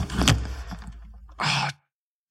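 A door is pushed shut: a dull thump and low rumble, then a short rushing slide, a moment of silence, and a sharp knock right at the end.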